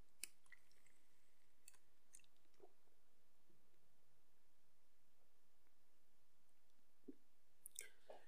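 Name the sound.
drinking water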